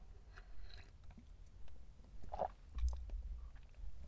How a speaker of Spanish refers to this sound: pausa para trago